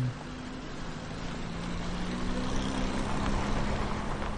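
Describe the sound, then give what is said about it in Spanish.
A dark vehicle's engine hums steadily over broad rushing noise, a low droning tone that grows slightly louder over several seconds as the car approaches the entrance of a prison, with no voices. “Fuera, un vehículo oscuro se aproxima en la entrada de la prisión.”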